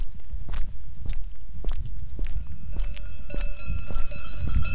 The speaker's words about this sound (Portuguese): Desta vez vai a pé, como sempre se fez este caminho.